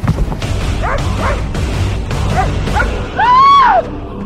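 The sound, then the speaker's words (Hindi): A dog barks and yips several times in quick succession as it runs out of a box and out of a room, ending with a longer, louder whining bark, prominent over a faint background. “उस बॉक्स से भौंकता हुआ कमरे के बाहर भाग गया”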